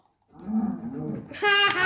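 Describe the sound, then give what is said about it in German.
A single drawn-out cow moo in a video game as a player kills the cow, low and groaning at first, then rising into a louder, brighter bellow near the end, with a faint voice mixed in underneath. “Ich bin erst da, ich töte die Kuh.”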